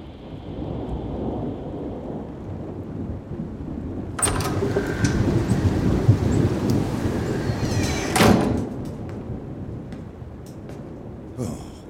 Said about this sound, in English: I said there's a nasty storm picking up, but you never listen.